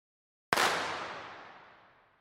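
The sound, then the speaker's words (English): A single sharp crack of a starting pistol fired outdoors, bursting out of silence and then fading away over a couple of seconds with a lingering echo. No one speaks. “Now we're going to play you firing that starting pistol out in the real world.”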